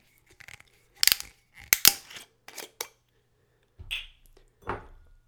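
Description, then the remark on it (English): A series of short crackling, crunchy clicks and scrapes as the yellowish gold metal screw top is twisted off a bottle of Zubrovka bison grass spirit, with a few brief bursts and a small pop-like sound near the end. “Let's open the bottle.”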